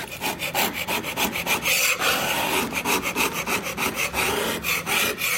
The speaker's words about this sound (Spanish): Y este otro está cerruchando una tabla. Primero la midió, hizo un trazo y ahora la está cortando. Mira, escucha el ruido.